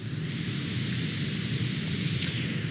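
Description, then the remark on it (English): A creek at a campsite deep in the mountains gurgles and rushes steadily at night under the stars. It is a dense, continuous wash of water noise that holds an even loudness throughout, with no voices. “Right now, I'm looking up at stars, the fire, and of course, the sound of the creek behind me making all that gurgling noise.”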